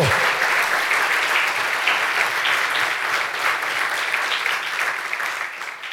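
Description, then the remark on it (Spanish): Sustained applause from an audience, given to the Lord: a dense steady roar of many hands clapping at once that stays loud throughout and eases slightly at the end, with no voices standing out. “Dele fuerte ese aplauso al Señor.”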